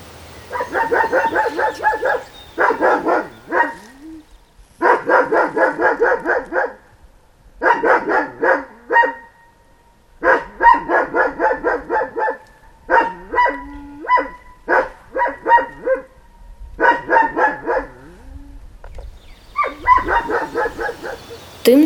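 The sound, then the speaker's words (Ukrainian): A farm dog barks in repeated volleys of quick, harmonic yaps, each burst lasting a second or two with short pauses between, clear with no voices. “Хіба що пес із якогось господарства ліниво вирішить перевірити, кого ж там занесло у його розмірений плин життя.”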